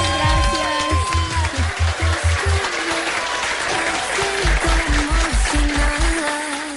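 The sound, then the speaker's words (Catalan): An audience applauds with dense, steady clapping that lasts the whole clip, over upbeat music with a pulsing bass beat and bright melodic notes. “Un aplaudiment per la”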